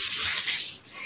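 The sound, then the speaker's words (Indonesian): A steady, hissing rush of running water in a bathroom, like a tap or shower going, continuous for about a second with no voices. “ada suara suara air gue kamar mandi”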